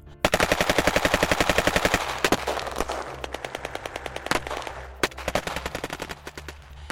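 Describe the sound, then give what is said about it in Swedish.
Rapid automatic gunfire from two gunmen firing at a car rattles off in a fast, steady burst for about two seconds, then continues as scattered, irregular shots and short volleys, loud, with no talking. “Och medan han, den här Goonen rör sig framåt så hör, ser du hur de här andra två personerna rör sig framåt där och lagom till att den här mannen har kommit fram så hör du hur eldgivning börjar ske där framifrån.”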